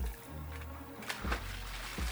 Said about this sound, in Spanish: el agua levanta una leve salpicadura a causa del cuerpo de Rodolfo.